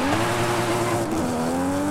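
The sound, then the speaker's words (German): A car engine roars steadily, its pitch holding high with a brief dip and rise, accompanied by a strained tire squeal, loud and continuous with no talking. “Dann hören wir nämlich den intensiven Sound dieses Autos.”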